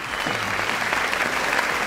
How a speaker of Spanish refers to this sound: un aplauso para él.